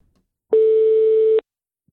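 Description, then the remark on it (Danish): A single steady telephone ringing tone as a call is placed to a person in France, a buzzy mid-pitched beep lasting just under a second, sounding alone against silence with no voices. “jeg prøver lige at få tastet hendes nummer ind her og prøve at få ringe, så se om hun er med dernede fra.”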